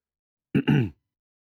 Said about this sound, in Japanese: 咳払いをした